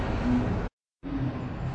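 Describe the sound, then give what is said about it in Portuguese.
Loud, steady rumble of a truck passing on the street, heavy in the low end, broken by a brief dead-silent gap midway before the engine noise resumes. “galera, desculpa pela zoada, é porque realmente tá propaganda aqui na rua, caminhão passando.”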